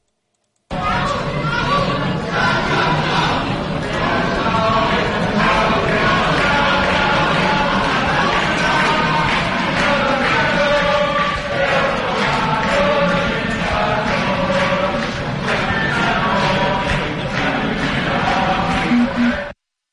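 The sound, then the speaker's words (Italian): A large crowd of students occupying the Sorbonne university in Paris, France, sings together loudly and steadily in unison, a rousing chant-like protest song heard from the street outside, with a dense, reverberant roar of many voices. “si sentiva da fuori, quindi dalla strada, gli studenti che cantavano Bella Ciao”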